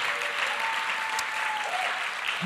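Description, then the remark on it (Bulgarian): A church audience claps together as an offering of thanks to God, in a steady, dense wash of applause that holds at an even level throughout, with a faint sustained tone running underneath. “Има ли някой в църквата, който е благодарен на Бог затова и може да му даде едно дарение на ръкопляскане.”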